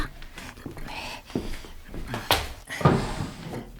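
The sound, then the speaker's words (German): A wooden desk drawer slides open with a scraping rattle and a couple of knocks, amid soft shuffling and handling noises. “Und, und was ist mit dieser Schublade da?”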